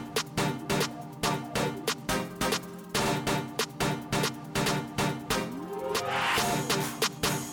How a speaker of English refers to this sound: There's about to be a cartoon voice that I enjoy very much. Ooh. Wait for it. Wait for it. It's electronic dance music.